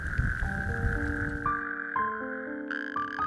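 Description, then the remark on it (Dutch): A dense chorus of thousands of natterjack toads calling toward evening in spring (April to May), their rasping trills blending into one steady, loud drone, with several long sustained tones layered over it and no talking. “En vanaf zo'n beetje april tot en met mei hoor je hier tegen de avond een koor van duizenden rugstreeppadden.”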